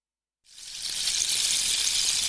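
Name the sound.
rain falling outside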